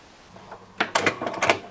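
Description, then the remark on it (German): A cassette deck button is pressed and the tape head is pushed upward on its own: a quick run of sharp mechanical clicks and clunks, fairly loud, with no one talking. “Du hörst, dass dieser Kopf ähm, von selbst nach oben gedrückt wird.”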